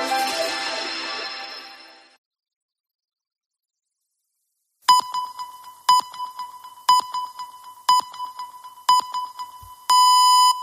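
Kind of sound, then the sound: signal or alarm, mobile phone alarm ringing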